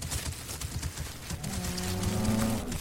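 As cows are herded along a street, a cow lets out one long, low moo that rises and holds for over a second, fairly loud, after a stretch of soft shuffling and rumbling with no one speaking.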